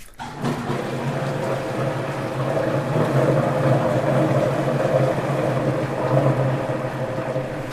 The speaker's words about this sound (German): Also wir machen aus, zum Beispiel aus Stoffresten, ähm, die kommen in eine Maschine, der heißt Holländer. Ich zeig dir mal den, den Holländer, ja? Ja. Jetzt wird es kurz laut, wenn ich diese Maschine anmache.